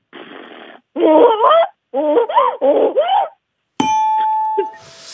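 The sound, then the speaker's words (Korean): A person imitates the bray of a donkey angry at having its carrot taken, with a quick run of rough, wavering voiced bursts, loud; a bright electronic chime rings out after them near the end. “자, 당나귀 울음소리 한번 들어보겠습니다. 당근 뺏겨가지고 들어볼게요.”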